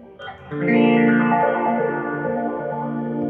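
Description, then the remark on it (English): A sustained, heavily effected guitar tone through a phase shifter in step mode, its tonal color jumping in random steps like a random tone generator. Loud, with no talking. “This is like a random tone generator.”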